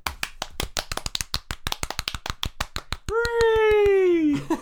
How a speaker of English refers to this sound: Insert 1990s Microsoft PowerPoint applause.